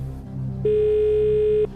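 A single steady ringback tone of an outgoing phone call to a friend, made from a studio, lasting about a second, clear and fairly loud, rising over a low background hum and then cutting off abruptly. No one speaks.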